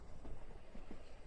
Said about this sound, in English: They're hulking machines, that rattle and shudder and click and clap. You can barely hear the wheels clicking along the tracks.